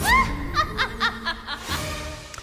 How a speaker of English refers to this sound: That I'm told is … Wendy Witch's cackle.